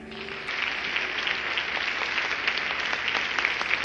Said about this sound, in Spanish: Demos un aplauso al Rey.